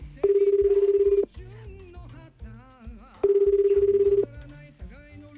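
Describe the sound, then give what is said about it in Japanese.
An outgoing phone call, made unannounced to a grand prize winner, rings back twice, each steady buzzing tone lasting about a second with a pause between, loud and clear over soft background music. “電話してみたいと思います恒例のアポなし電話出るかな”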